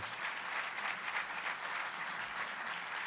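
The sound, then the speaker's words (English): Steady applause from an audience in Yonkers for a local singer who went from Yonkers Idol to American Idol, a dense wash of many hands clapping at once, sustained at an even level throughout without fading, with no talking over it. “Let's give her a nice round of applause.”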